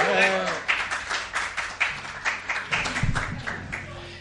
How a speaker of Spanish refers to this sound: ¡Un aplauso!